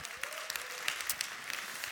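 Steady applause from a church audience in Nuremberg, a dense crackle of many hands clapping at once with sharper individual claps popping out, moderately loud and without voices.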